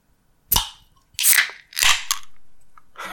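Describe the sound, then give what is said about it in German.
A bottle of Astra Rotlicht beer being opened: a sharp crack as the cap gives way, followed by two or three bursts of bright, hissing fizz that fade out. No one speaks. “Ja, ich hab mal wieder Astra Rotlicht. Äh, und das mache ich jetzt erstmal auf.”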